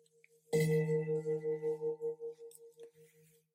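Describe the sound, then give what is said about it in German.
A single gong strike, the third gong, rings out with a sharp attack, then a low, resonant tone that pulses and wavers as it slowly fades over about three seconds. No voices. “Beim dritten Gong Rekun strecke ich mich liebevoll und öffne die Augenlider.”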